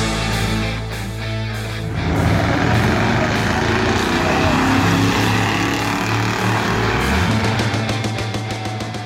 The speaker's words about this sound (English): That is his 1964 Mercury Breezeway at the drag strip, racing his buddy in his 1964 Mercury Marauder.